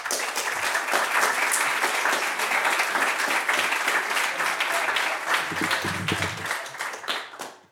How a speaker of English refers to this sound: So please give him a big round of applause.